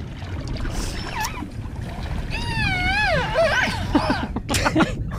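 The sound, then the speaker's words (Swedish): Dolphin whistles, a few rising and wavering squeals and one long warbling call, mixed with quick clicks over a steady rumbling underwater background. No voices. “jag tror att det där var en delfin.”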